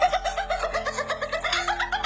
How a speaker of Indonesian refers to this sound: Kalau kita malam-malam itu tuh suara binatang ternyata. Emang iya? Itu pun Suara binatang. rakun kayak kayak rakun gitulah.